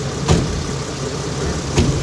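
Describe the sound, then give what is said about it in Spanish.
A hearse's engine runs at a low, steady idle-like rumble as one of three hearses leads a funeral procession to the cemetery, with two brief louder surges about a second and a half apart and no voices. “Delante de ellos, los tres coches fúnebres, marcando el paso hasta el cementerio.”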